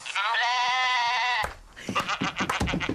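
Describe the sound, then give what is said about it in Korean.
A young black goat, one of three tied to a post and grazing, lets out one long, loud, wavering bleat, followed by a burst of shorter, choppy sounds. “그 흑염소 세 마리 말이다.”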